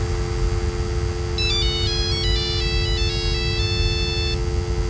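A phone ringtone, a call to a special guest, plays a short, bright melodic pattern of rising and falling tones for about three seconds, then stops without being answered, over a steady low hum.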